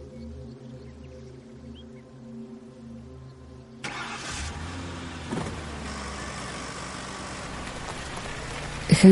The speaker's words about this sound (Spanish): Hank mira a Marie, luego mira al frente con gesto reflexivo y enciende el motor del coche.